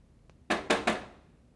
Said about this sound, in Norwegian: Nei, dette her er ikke gekko. De har jeg begynt å mm. skjønne. Mm. Dette er mus, tror jeg.